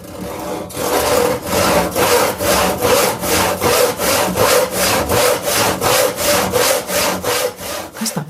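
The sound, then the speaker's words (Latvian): A hand saw cuts through wood in steady back-and-forth strokes, about two per second, each a loud rasping swish, continuing throughout with no talking. “Koku zāģēšana.”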